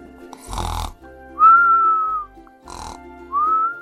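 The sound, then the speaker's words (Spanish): A lamb snores softly, two slow cycles: a raspy, snorting breath in followed by a thin whistling breath out, repeated one after another with no talking. “La ovejita roncaba dulcemente bajo su oreja, un ronquido tras otro.”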